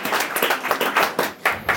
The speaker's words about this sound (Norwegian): Ta han godt imot. God applaus til han.